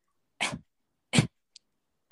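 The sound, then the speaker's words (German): Two short, harsh coughs demonstrating a persistent cough that lingered after an infection, each a quick burst separated by a pause of about half a second, with no talking in between; a small click follows. “Dieses Mal ging der Husten, aber ähm, nicht mehr ganz weg ich habe dann, als die Infektion schon lange vorbei war, ständig so,”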